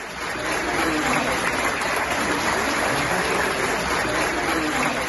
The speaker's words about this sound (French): Et tout d'un coup, tout l'aéroport, toute la foule de l'aéroport s'est levée et applaudit très fortement les Français.